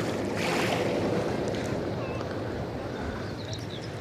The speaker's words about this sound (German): Die Wellen schwappen. So schön. Hört ihr das?